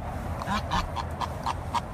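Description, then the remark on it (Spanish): A small horse named Caramelo, being called over, calls in a quick series of about six honking, goose-like bursts, evenly spaced over a steady background hum, at moderate volume with no talking. “Ahí viene Caramelo, ahí viene, ahí viene. Lo están llamando, Caramelo, muy, muy chulo Caramelo.”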